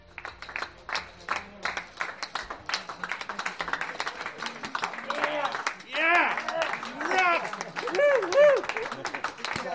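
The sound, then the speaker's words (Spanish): Members of the Yamaha factory team applaud together in the pit garage, a dense burst of clapping with voices calling out and talking over it as it continues, at Valentino Rossi's farewell after 15 years with the team. “yo creo que eras uno de los que estaba en el box aplaudiendo Así ha sido la despedida después de 15 años en el equipo oficial Yamaha, nada más llegar al box de Valentino Rossi.”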